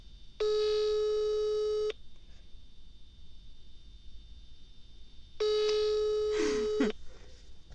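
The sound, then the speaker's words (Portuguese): A phone line ringing out: two steady electronic ringback tones, each lasting about a second and a half, separated by a few seconds of quiet line hiss while waiting for someone to pick up. “Epá, este é sempre o momento que me irrita, que é as pessoas nunca atendem logo.”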